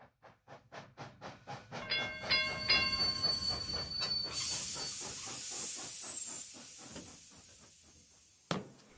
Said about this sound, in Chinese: 在自由之丘车站，从大井町线的电车上下来后，妈妈拉着小豆豆的手，正要走出检票口。